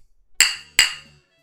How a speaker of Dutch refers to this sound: Goed, normaal kraak ik altijd de blikjes, maar het zijn geen blikjes, het zijn flesjes. Ik kan ze tegen elkaar aanklinken. Kijk.